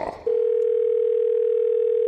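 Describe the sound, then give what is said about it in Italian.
After a brief rustle, the ringing tone of an outgoing telephone call to an electrician starts and holds at one steady pitch, loud and unbroken until the end, with no voices. “Seconda telefonata all'elettricista.”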